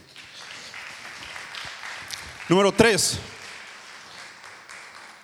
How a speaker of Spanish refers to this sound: Dale un fuerte aplauso a Dios, iglesia.